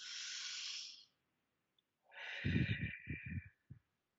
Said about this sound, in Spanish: Entonces, una de las cosas primeras que tenemos que hacer es oxigenar, es decir, de verdad respirar. Oxigenar no es la respiración del día normal, es parar un segundo, un segundo,